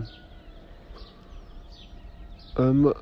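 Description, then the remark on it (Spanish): Small birds chirp faintly and repeatedly, with roosters among the birds, just before dawn over a quiet outdoor background, and near the end a brief loud voice cuts in for a moment. “bueno, es que todos los que son aves, son gallos, son pajaritos.”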